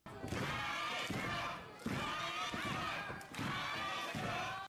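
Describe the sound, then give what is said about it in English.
A wrestling crowd, with three or four people yelling the name of wrestler Alex at her debut, chants it in three loud, rhythmic bursts with brief pauses between, sounding like "Attica", the voices blending into a dense arena roar. “But there's actually three or four people yelling her name.”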